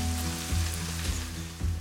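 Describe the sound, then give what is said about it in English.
Latkes pan fry in a hot pan of oil, sizzling steadily, a continuous crackling hiss with a low hum underneath and faint periodic thumps about every half second. “And I can hear that great sizzle, which is like the best sound of Hanukkah.”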